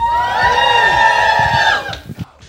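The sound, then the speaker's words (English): A live crowd at Geek Fest cheers loudly, a high sustained whooping roar holding steady for over a second before breaking off into a few scattered shouts and claps. “And the crowd goes wild.”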